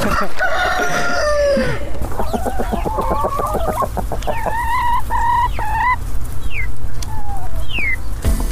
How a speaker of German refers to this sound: Und ich würde vorschlagen, wir sind ja hier auf dem Pappelhof. Da ist ein Huhn entlaufen und das fangen wir rein.